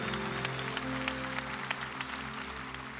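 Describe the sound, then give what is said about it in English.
A large crowd claps steadily and cheers, the dense applause filling the room without a pause, over a low sustained hum in the background. “Let's cheer for him.”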